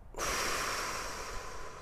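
A single long breath pushed out in a breathing exercise, with hands on the belly after breathing in through the nose without lifting the shoulders. It is a steady, airy whoosh lasting under two seconds, with no talking.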